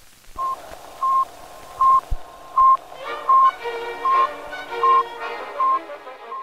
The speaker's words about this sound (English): Those beeps, heard across the world last Friday, ushered in a new era. They were transmitted by Sputnik, the world's first artificial satellite. It was launched into space from Baikonur Cosmodrome in the Kazakh Soviet Socialist Republic.